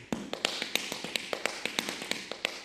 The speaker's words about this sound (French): Ambiance, tap dance.